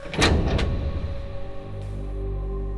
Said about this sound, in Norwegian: Med, et klank så åpner porten døren bak dere.